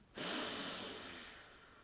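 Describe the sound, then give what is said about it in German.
A long, steady deep inhale drawn in through the nose during a breathing exercise, a soft breathy hiss that starts abruptly and slowly fades over nearly two seconds, fairly quiet, with no talking. “Und nochmal einatmen.”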